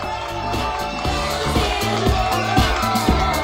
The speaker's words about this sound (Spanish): Ahí lo recibimos con muchos aplausos.